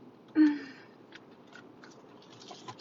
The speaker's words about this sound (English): I hope your coffee is strong. Take a sip with me, or tea or water, but let's get some.